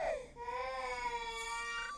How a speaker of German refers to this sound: Jetzt ging es wieder los. Wieder bildete ich mir ein, etwas zu hören. Diesmal war es das jämmerliche Gebrüll eines Kleinkindes.